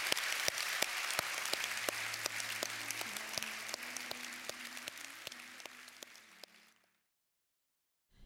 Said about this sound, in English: If you could put your hands together with me to thank, thank you very much for joining us today. Thank you.